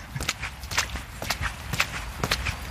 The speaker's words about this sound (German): Und ich patsch hier durch die Straßen.